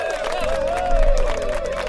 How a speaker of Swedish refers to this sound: Du ska få en applåd Lamar!